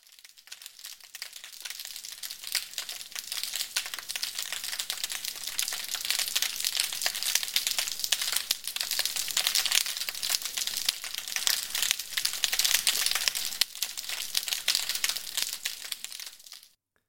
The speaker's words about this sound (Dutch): Laten we nog naar een voorbeeld luisteren van geluid onder, de, onder het water. Snapping Shrimp, opgenomen in Ierland.